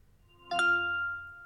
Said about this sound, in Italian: e fa questo rumorino vibra anche, quindi mi fa capire che l'iPhone si sta accendendo. Che l'iPhone si sta accendendo.